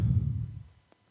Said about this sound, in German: Wer atmet denn hier? Ich, weil ich mein Mikrofon umdrehen musste.